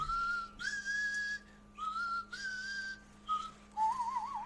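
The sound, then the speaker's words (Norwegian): David Lynch, as Gordon, sitting in front of a picture of a nuclear mushroom cloud, whistles a melodic tune in several phrases, with short pauses between them and a wavering, trilling ending. The whistling is clear, with no talking. “sitter foran et bilde av atomsky, så plystrer han.”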